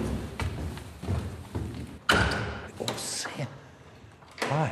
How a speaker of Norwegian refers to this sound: lukker du opp noen store, høye dører. Og vi går inn i selve festsalen til Det kongelige norske Vitenskapers selskap her i Trondheim.